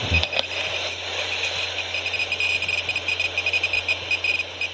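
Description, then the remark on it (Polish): A car's turn signal ticks steadily inside the car, recorded on a voice recorder while driving to work, its regular clicking repeating over a low, constant cabin hum, with no talking. “To w samochodzie słychać kierunkowskaz.”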